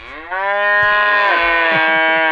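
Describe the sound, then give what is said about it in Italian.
An electronic nativity scene toy, on its button for the hens, plays a single recorded cow moo, loud, a long sustained lowing call of about two seconds with no voices around it. “Tutto mu fa.”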